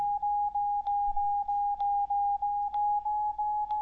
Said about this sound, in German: So, jetzt hört man einen Piepton, über dessen Höhe ich feststellen kann, ob ich das Gerät verkippt habe. Im Moment ist es wohl noch etwas verkippt. Ich bewege es weiter in die Mitte. Jetzt hört man der Ton wird höher.